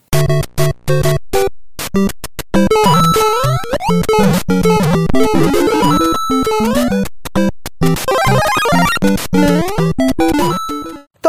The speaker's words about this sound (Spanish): estos sonidos son llamados audiologos y las marcas los utilizan para ser reconocidos a través del sentido auditivo, porque las marcas no solo se ven, también se oyen.